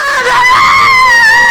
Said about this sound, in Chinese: 还没等 Mary 说什么，这时候灵媒再次尖叫了